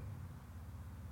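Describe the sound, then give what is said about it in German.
A motorcycle engine hums in a low, steady drone, fairly quiet, holding an even pitch and level throughout without a clear approach or fade, as the motorcycle rides on the Nürburgring racetrack. “Das war jetzt eine Maschine, ein Motorrad.”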